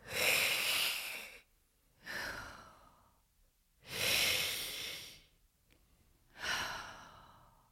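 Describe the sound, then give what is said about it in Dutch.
A voice imitates heavy, wheezing breathing: four loud, drawn-out breaths, each harsh and raspy, alternating in and out with short pauses between them. “En ik hoorde zijn ademhaling, maar echt zo”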